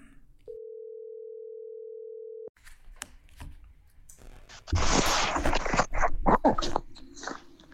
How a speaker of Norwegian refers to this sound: Kanskje vi skal ringe han og høre, da? Vi ringer og hører hvordan det går.